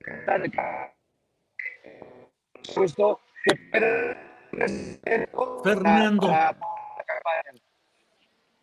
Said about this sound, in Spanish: …, se escucha con mucha interferencia